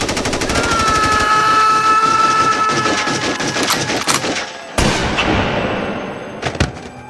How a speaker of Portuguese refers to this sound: Mas acabou sendo alvejado por 38 tiros.